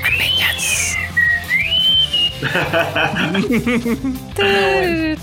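Someone tries to whistle, producing a thin, wavering tone that slides up and down for a couple of seconds before breaking into breathy vocal noises and brief laughing sounds.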